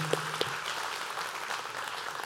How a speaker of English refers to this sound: Can we just start by thanking our moms right now? Just give them a cheer and a clap and a thank you.